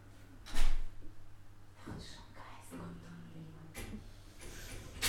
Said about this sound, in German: Mach die Tür zu. Mach mal das Gitter auch zu.